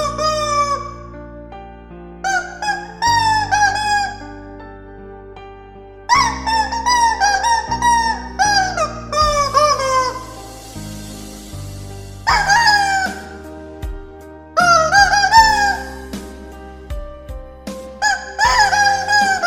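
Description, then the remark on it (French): Rubber chicken toys squawk loudly in quick, pitched bursts that rise and fall like a melody, playing a song cover over a steady low backing, with brief pauses between phrases and no talking. “je suis euh, mort en ce moment sur toutes les vidéos qui font des trucs avec des poulets en plastique”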